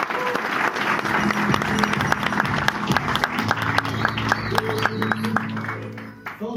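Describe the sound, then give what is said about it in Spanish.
An audience claps steadily, a dense rattle of many hands sustained for several seconds at a fairly loud level, with a low murmur of voices underneath and a slight easing at the end. “Date un fuerte aplauso, por favor.”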